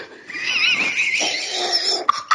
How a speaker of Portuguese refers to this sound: Você também bocejou junto. Não adianta rir, não. Mas eu, eu bocejei após o ato, cara.